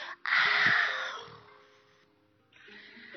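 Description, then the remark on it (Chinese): A person's voice imitates a little bear yawning while reading aloud a children's story from the Little Bear picture book series: a loud airy moaning exhale that fades out, followed after a short pause by a softer breathy sigh. “哎呦，小熊打了一个哈欠”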